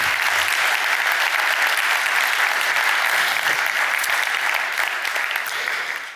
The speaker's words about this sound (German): Dieses Mal eine Sondersendung direkt vom Bodensee Business Forum 2021 aus dem Graf Zeppelin Haus in Friedrichshafen. Schön, dass Sie eingeschaltet haben und ein herzliches Willkommen dem Publikum hier vor Ort. Schön, dass Sie da sind. Danke. Applaus